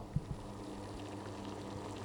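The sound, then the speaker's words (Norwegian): Water boiling and gurgling in a stovetop moka pot making coffee, a steady low churning hiss with a couple of brief pops near the start, fairly quiet. “Der hører man eh, kokende Fortell, hva er det du holder på med?”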